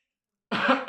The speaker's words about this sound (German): Ja, er hat nicht mal gehustet. Genießt, er hat gehustet.